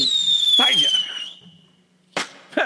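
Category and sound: sound effect, rocket launch sound effect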